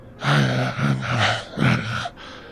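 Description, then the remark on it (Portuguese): A voice imitates someone grumbling and muttering: about two seconds of low, wordless, rising-and-falling vocal noises in several short bursts, fairly loud, then a brief quieter tail. “De longe, você percebe que ele começa a resmungar e ele fala algo mais ou menos assim.”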